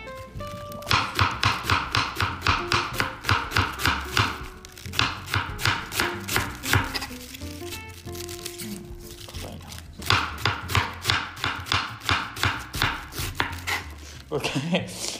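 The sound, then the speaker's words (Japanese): A knife chops a small half cabbage bought from Woolworths, including its hard core, on a cutting board in quick, steady, crisp strokes, pausing briefly a couple of times before resuming the rapid rhythmic thuds, with no one talking. “ちょっとなんかちっちゃめのキャベツですねこれはうん芯のところも一応無駄にしたくないのでまあ硬いけど”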